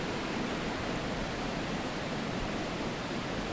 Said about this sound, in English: So that sound, I'm only about, I can see the water flowing.